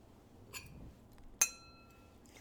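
Glasses clink together in a toast: a soft tap, then one bright, sharp clink that rings on briefly with a clear glassy tone against a quiet background.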